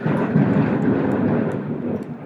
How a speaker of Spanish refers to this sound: Sí, señores, eso ha sido un trueno. No sé si se, ha oído, pero es que aquí está empezando. Vamos a tener que salir. Ha pegado luz, un flash que no veas.